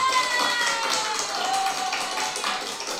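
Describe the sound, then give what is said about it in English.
A clapping sound effect played from software: dense, steady crowd applause fills the whole clip, a continuous wash of many hands clapping at once at a fairly even loudness, with no voices speaking over it. “Uh, oh, by the way, I'm about to do some claps because I want to applaud everybody.”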